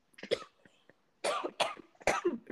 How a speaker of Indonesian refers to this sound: berbatuk aduh jadi batuk